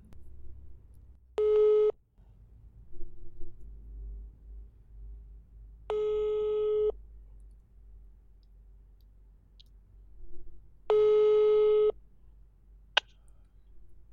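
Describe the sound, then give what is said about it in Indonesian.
Three long, steady ringback tones, each about a second, evenly spaced several seconds apart, loud and clear over a faint low hum, followed by a brief click near the end. “Ke kita telepon ya iya kita telepon karena tidak boleh kumpul-kumpul kan yeah.”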